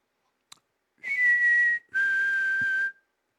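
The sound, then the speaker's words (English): A man whistles two drawn-out notes in a row, the second slightly lower and longer, with a breathy, airy edge; clear and fairly loud, with no talking. “What does he whistle like that?”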